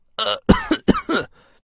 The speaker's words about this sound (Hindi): उसे खांसी भी हो रही थी माँ बहुत खांसी हो रही है तुलसी पत्ता का काढ़ा बना दो ना